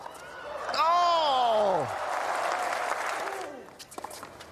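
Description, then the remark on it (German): A tennis crowd breaks into sustained applause during a match, with a loud whoop or cheer rising over the clapping near the start before the applause gradually fades. “Das Spiel läuft da im Hintergrund, wie wir gerade hören.”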